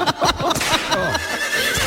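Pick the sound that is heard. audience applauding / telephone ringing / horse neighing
horse neighing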